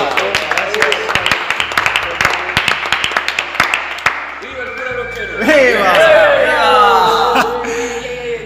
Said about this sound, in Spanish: Bueno, vamos a aplaudir. Un aplauso entonces.